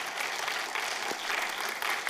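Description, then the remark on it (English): A church audience claps steadily for its pastors for about two seconds, a dense, even wash of many hands with no voices standing out above it. “You can give a hand clap.”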